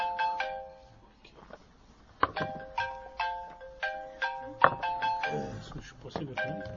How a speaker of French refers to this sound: C'est pas, non, c'est celui-là, regarde, c'est l'alarme.